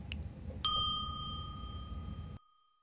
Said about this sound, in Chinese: 好，接下来呢，我们来玩你问我答的游戏。小朋友们听到“叮”的声音后，请说出你的那一句。